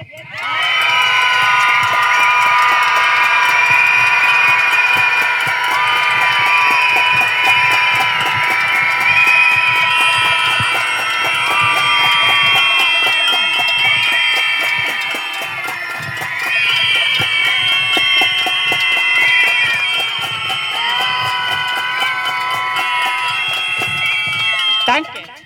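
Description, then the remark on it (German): A large crowd of protesters in Austria screams together against femicide and violence against women, many voices merging into one loud, sustained roar that holds steady for about twenty-five seconds, dipping briefly midway before swelling again. “Das ist zum Schreien. Jetzt!”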